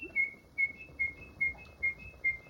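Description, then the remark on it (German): A grandfather, a skilled imitator of bird calls, whistles an imitation of birdsong: six short, high, chirping notes in a steady, evenly spaced rhythm, clear, with no talking. “Da mein Großvater ein begabter Vogelstimmenimitator war, brauchte ich nur auf einen der Vögel zu zeigen, um ihn zu einem anhaltenden Gezwitscher anzuregen.”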